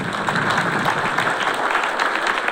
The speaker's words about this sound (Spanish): Toda la conferencia se grabó. Vamos a darle un aplauso a los que grabaron.